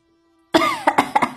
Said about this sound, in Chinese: 外面值夜班的老嬷嬷咳嗽了两声